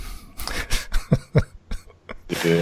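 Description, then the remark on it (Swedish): A voice imitates a man coughing: a series of short, rough coughs in quick succession, fairly loud, ending in a breathy, throaty sound. “Och sen såg jag han, han som stod och, och grejade va, han, så, han gick ju och hostade lite va.”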